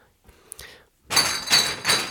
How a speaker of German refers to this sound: oh, jetzt bin ich hier gerade gegen, ich laufe immer im Zimmer rum und bin gerade gegen eine Tüte getreten, wo ganz viele Lemonade Plus Flaschen drin sind, die leer sind.